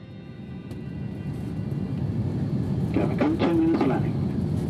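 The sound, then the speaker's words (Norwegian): A steady, dense low roar fills the whole recording, the engine and air noise inside the cabin of a near jumbo-jet-sized airliner in flight to Greenland, with faint voices briefly surfacing near the end. “Til tross for at det bor bare 50 000 mennesker på Grønland, så er det nær sagt jumbojetstørrelse på flyet vi tar.”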